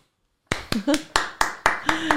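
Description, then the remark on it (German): Applause in steady, evenly spaced claps, about eight sharp cracks over under two seconds, starting abruptly after silence, with a faint voice murmuring between claps. “Danke, Applaus ja. hier, Applaus, Applaus, ja.”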